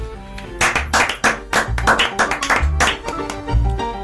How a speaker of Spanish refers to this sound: Voy a aplaudir a este hombre.